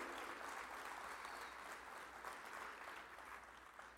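An audience applauds steadily, a dense wash of clapping hands that holds at an even level for the whole few seconds without any talking.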